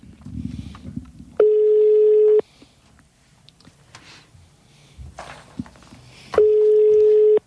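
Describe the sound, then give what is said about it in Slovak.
A telephone ringback tone rings twice and goes unanswered: two steady, buzzy one-second tones about five seconds apart, with faint rustling and low background noise in between. “U nás najčastejšie sa ozývajú takéto zvonenia, ktoré nikto nedverie.”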